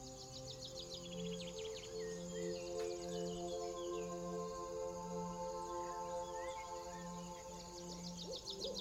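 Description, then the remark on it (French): Faint, distant birds in nature trill and chirp in short high bursts at the start and end, over a soft, steady series of low, evenly spaced hooting tones and a gentle insect-like hum. “Les notes de musique le chant lointain des oiseaux.”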